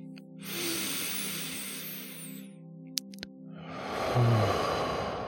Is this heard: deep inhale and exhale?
yes